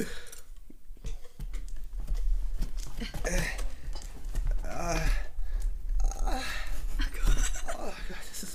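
Continuous crinkly rustling and scratchy handling noises as a package is being opened, torn and pulled open, with irregular clicks and crunches throughout.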